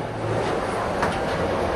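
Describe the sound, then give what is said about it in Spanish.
A glass elevator descends from street level to the store one level below inside the Apple Store on Fifth Avenue, New York, with a steady mechanical rumble, a continuous low hum with faint whirring overtones and no voices. “Estamos justo, justo dentro del elevador en estos momentos y ahí estamos bajando.”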